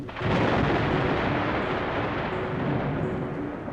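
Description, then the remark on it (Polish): A thunderstorm at Son Kul with a deep, continuous roll of thunder, loud, rumbling steadily for several seconds with a dense wash of noise and no voices. “Burza przeszła, wyszło słońce, owce panikary wróciły na pastwiska, z jurt wybiegły psy,”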